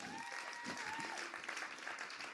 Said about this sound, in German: Ich würde sagen, wir machen einen dicken Applaus nochmal für die Band.